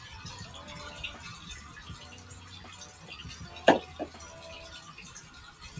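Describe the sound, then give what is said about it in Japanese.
Oil sizzles quietly as eggplant is deep-fried plain, a steady soft crackling hiss with two sharper pops partway through. No one speaks. “パチパチピチピチ、油の音がいい感じ。”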